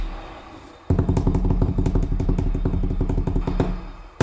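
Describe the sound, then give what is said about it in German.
A rapid, steady patter of hand-drummed thumps, like an improvised drum roll on a tabletop, starts abruptly and rumbles on loud for about three seconds before stopping. “Ähm, genau, mach mal Trommelwirbel, weil ich bin, glaube ich, bereit, jetzt das Problem zu nennen.”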